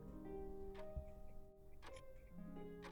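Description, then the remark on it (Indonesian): A wall clock ticks softly at a steady pace of about one tick per second, three or four clicks heard late at night, just after 11 p.m., with a faint low hum underneath. “Suara detak jam dinding membersamai irama napasku.”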